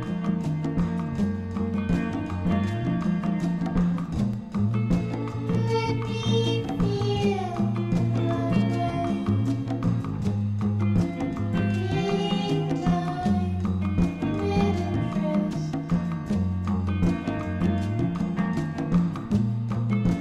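A dissonant psychedelic pop song plays loudly and continuously, with a sung vocal gliding over a steady, pulsing bassline and layered instruments; no one talks over it.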